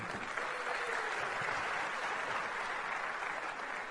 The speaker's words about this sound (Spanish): un fuerte aplauso para mi diamante